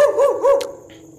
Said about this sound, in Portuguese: Tem um cachorro latindo muito alto. Aqui do meu lado tem um cachorro latindo muito alto.